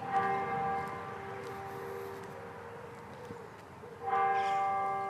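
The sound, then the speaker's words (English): A church bell tolls twice, each strike ringing out with rich, sustained harmonic overtones that slowly fade, the second stroke arriving near the end over a low background hum. “Anyway, I hope, I just hope you got to hear that bell.”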